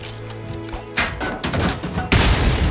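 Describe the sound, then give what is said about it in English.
Rapid bursts of movie gunfire crack out in a steady, driving rhythm, loud, layered over a low booming drum score with no voices. “all the gunshots are like basically you know with the zimmer drums going”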